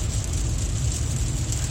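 Steady rain, a constant even hiss with a heavy low rumble underneath, unchanging in loudness throughout and with no voices.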